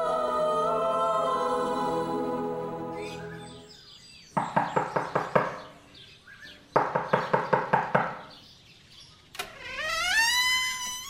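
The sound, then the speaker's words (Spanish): Early in the morning, Don Fernando knocks on the wooden door of Don Ramiro de Jiménez Fierro's house: two quick bursts of about six sharp, loud raps each, with a sustained tone before and chirping, whistling sounds after. “Al día siguiente, muy temprano, don Fernando tocaba la puerta de don Ramiro de Jiménez Fierro.”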